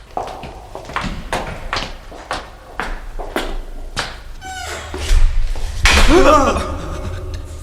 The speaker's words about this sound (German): Die Tür wurde zugeschlagen.